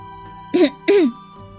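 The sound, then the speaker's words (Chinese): A voice clears its throat in two short, gruff bursts, the second slightly longer, over a faint steady background hum. “阿佛清了清嗓子，等了一会儿，然后就像站在舞台上那样”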